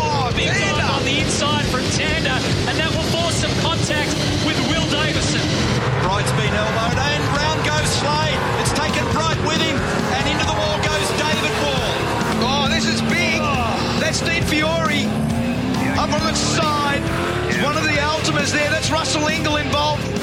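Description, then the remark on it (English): Race cars roar together in a dense, loud wall of engine noise with sharp clattering bursts as a crash at the race start at turn one takes seven cars out, while voices talk over the din throughout. “the massive shunt at the start of the race that took seven cars out of the field”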